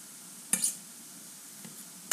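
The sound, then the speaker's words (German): A low, steady sizzle of kohlrabi frying in a pan, broken by a few sharp scraping clinks as it is stirred, with no one speaking. “Okay, ich würde sagen, wir nehmen jetzt den, den Kohlrabi aus der Pfanne. Ich teste noch einmal.”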